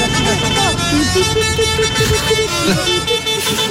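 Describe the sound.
Several vehicle horns of protesting farmers blare a simple, bouncy children's tune in short stepped notes, loud and continuous, with the rumble of traffic and indistinct crowd voices underneath.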